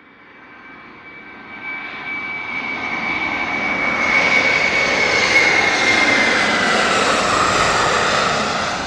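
An airplane flies past, its engine roar swelling steadily from a low rumble to a loud, broad whoosh that holds near its peak before easing slightly at the end, with a faint whine running through it.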